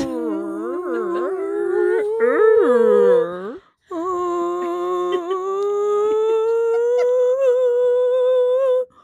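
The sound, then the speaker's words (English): Human voices imitate whale moans in a whale moan room on Clubhouse, first in loud, swooping, warbling cries, then after a brief pause in one long, steady moan that slowly rises in pitch. Without talk. “Well, there's a whale moan room on Clubhouse where everyone just moans like whales for hours.”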